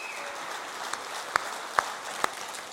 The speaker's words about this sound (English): Let's give a round of applause to God today, guys. Come on.